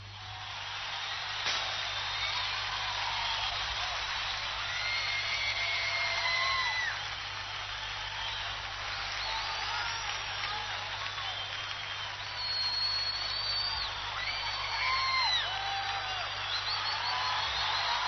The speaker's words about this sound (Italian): una folla piena di entusiasmo stasera per, uh, per, questo programma sulla pace, sulla guerra.